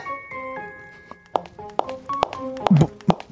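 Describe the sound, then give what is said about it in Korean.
Hard-soled dress shoes click in slow, steady footsteps, heard from inside a house on a rainy day, that start after a moment of quiet and grow louder, over a faint sustained tonal hum in the background. “뭐 갑자기 웬 구두 소리야?”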